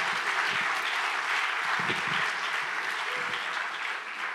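A crowd claps steadily throughout as a man comes up to speak, a dense, continuous wash of applause from a sizable audience with faint voices and shouts mixed in beneath it.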